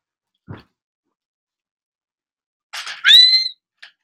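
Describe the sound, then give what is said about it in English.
A loud, piercing high-pitched whistle from a person rises and holds for about half a second, preceded by a breathy rush and followed by a faint short sound; a soft thump comes earlier. “I am a living dog whistle, and you cannot change my mind.”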